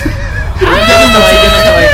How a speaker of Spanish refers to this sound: ¡Griten!